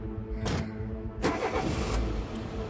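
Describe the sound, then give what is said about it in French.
A pickup truck engine starts up with a couple of sharp cranking bursts, then settles into a steady rumbling drone as a man drives the truck away. No voices are heard. “Lui et son assistant regardent l'homme repartir au volant du pick-up”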